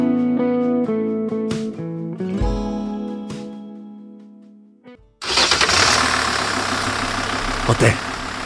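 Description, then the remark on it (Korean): After a few seconds of quieter tonal sound, a small delivery truck's engine turns over and runs loudly, a steady rough rumble filling the remaining seconds. “엔진 좋지? 아, 소리만 듣고는 모르죠.”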